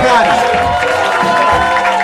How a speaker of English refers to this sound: Thank you guys for coming. yes. I want more. I want more applause for our